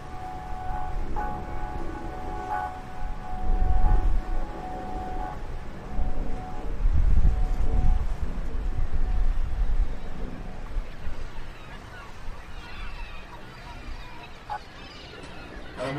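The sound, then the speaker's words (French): Steady low rumble of the engine of a boat that has just left a small estuary port on the Gironde, with gusts of wind buffeting the deck, swelling loudest around the middle, plus faint steady tones and honking in the background. “Bonjour et bienvenue à bord du Côte de Bocque. Alors nous venons d'appareiller de ce petit port de sur gironde un port qui d'estuaire, et comme tous les ports d'Espère, assèche sèche à marée”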